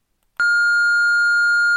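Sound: answering machine beep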